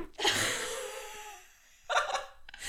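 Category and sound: human body sound, stifled sneeze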